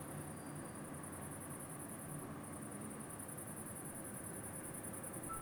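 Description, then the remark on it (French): A steady, high-pitched trilling chorus of whistling toads pulses on without pause over a soft background hiss, with no voices. “quand ils allaient se faire des bisous à côté d'une mare, où il y avait ces crapauds siffleurs”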